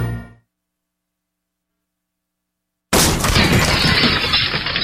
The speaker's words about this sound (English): That's what it sounds like when a burglar kicks in the door of a dark house that looks like no one is home.